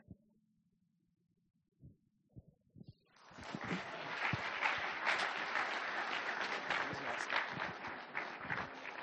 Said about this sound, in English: Let's give the uh, summer staff another round of applause for yeah, their boldness, and they did an excellent job.